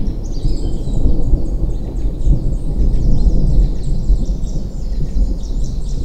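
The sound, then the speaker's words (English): Deep, continuous rumbling thunder rolls steadily throughout, loud and low, with faint high bird chirps scattered above it and no voices. “As soon as it like floats and turns its body, you hear uh, the sound of rumbling thunder.”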